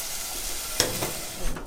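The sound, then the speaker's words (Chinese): Chicken frying in a pan until golden brown on the surface gives a steady, hissing sizzle throughout, broken by a sharp scrape of stirring partway through and a brief louder surge near the end. No one speaks. “金黄色这个， 应该也是煎个两三分钟就差不多了。”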